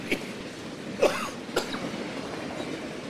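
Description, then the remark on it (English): Three short, dry coughs at uneven intervals, the middle one strongest, over a steady low background rumble with no talking. “What shot is gonna make my cough magically disappear?”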